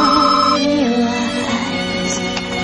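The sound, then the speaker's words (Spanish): A telephone ringtone plays loudly, a steady electronic melody of sustained tones that shift pitch a couple of times, with no one speaking over it. “Virginia mira al teléfono y espera para responder.”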